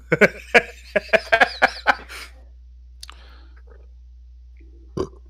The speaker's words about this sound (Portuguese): você tem que arrotar, você assopra. Eu assopro, mano, pra não ficar nenhum gosto não. ruim na minha boca.